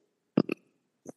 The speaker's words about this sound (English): That was a burp, not a motorcycle.